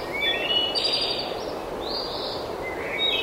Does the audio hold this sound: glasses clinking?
no